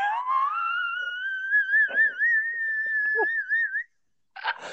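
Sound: kettle whistling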